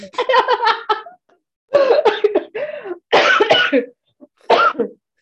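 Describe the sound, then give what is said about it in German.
A loud coughing fit: several rough, hacking bursts in quick clusters, with brief pauses between them, and nobody talking. “Hört sich an, als ob du wirklich mit dem Rauchen aufgehört hättest.”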